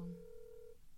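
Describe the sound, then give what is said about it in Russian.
A steady electronic ringback tone of an unanswered outgoing phone call hums on a single pitch for most of a second, then cuts off, leaving a faint low background. No one speaks over it. “Сейчас еще три звонка, и все, мы бросаем трубку.”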